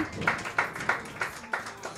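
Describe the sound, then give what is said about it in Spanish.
Brief applause from a small group, with about six claps in an even, steady rhythm at moderate volume, and no one speaking over it. “Un aplauso”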